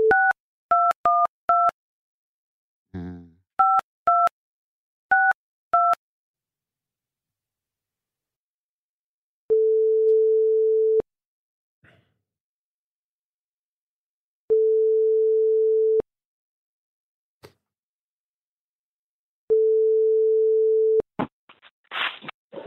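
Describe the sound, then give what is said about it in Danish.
A quick burst of two-tone keypad beeps dialing a number, then a steady ringback tone repeating three times with long silent gaps, as an outgoing phone call to the comedian Geo waits to connect. “Ja, ja, fordi vi ringer nemlig til komikeren Geo.”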